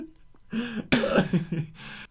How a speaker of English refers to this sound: do you need to clear your throat again? No, this is cleared. I just did.